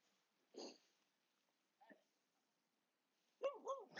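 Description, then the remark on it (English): A dog snuffles and snorts in a few short bursts with quiet gaps between, ending in a couple of brief whiny play noises, soft overall, as two dogs play while out with a dog walker. “stop playing with the, the two dogs.”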